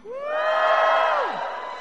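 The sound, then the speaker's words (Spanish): A crowd lets out a loud joyful shout of jubilation, many voices rising together into a sustained cheer that holds for over a second before trailing off. “Da voces de júbilo, a ver un grito de júbilo.”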